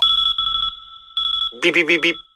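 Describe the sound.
An electronic alarm clock sounds in short pulsed bursts of a steady, piercing high tone, followed by a voice imitating the beeping four times in quick succession.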